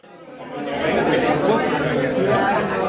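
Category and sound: crowd, crowd chatter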